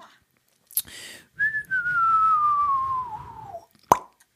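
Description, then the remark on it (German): A voice imitates a kiss: a sharp lip smack, then a long, steady whistle gliding slowly downward, ending in another crisp smacking pop. Fairly loud, with no talking. “Ja, schönes Geräusch, sehr schön. Ein das Kuss.”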